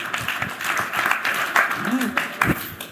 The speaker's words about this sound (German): Mal sehr verhaltener Applaus. Ja, ich finde auch.